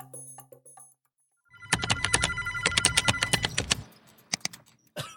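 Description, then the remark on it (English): A telephone rings loudly in an office, its rapid bell-like trill lasting about two seconds, while keyboard tapping and faint clicks carry on before and after. “This is what an office would normally sound like.”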